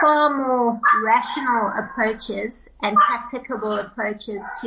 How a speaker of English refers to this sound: sorry about the dog barking that comes with post-COVID world.